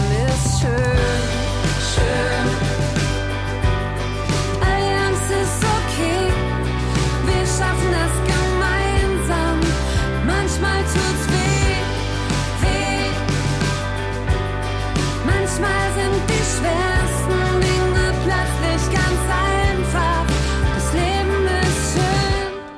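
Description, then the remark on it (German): A full pop song from a singer's new album plays at steady, loud volume for the whole stretch, with a driving bass line under dense, layered melodic instrumentation that ends abruptly at the close. “dein neues Album. …, ist jetzt draußen und das klingt so.”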